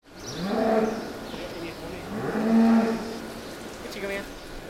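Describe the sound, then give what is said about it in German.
A cow at a feeding box lows twice, two drawn-out, deep moos with a rough, breathy edge, separated by a short pause and followed by faint shuffling and a snort. “Dann aber gewinnt die Lust der Kuh auf Leckerlis doch die Oberhand über ihre Skepsis angesichts des engen Verschlags.”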